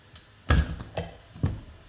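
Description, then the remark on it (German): A bottle of Urtyp beer from a 350-year-old brewery being opened: a few short, sharp clicks and knocks, one louder clack followed by two softer ones, with no pop and no voices. “Und ich würde sagen, wir köpfen das Ding.”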